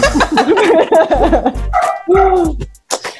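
A dog barks, opening with a run of high, warbling whiny yips and then a few sharper, louder barks with short pauses between them; no one is talking.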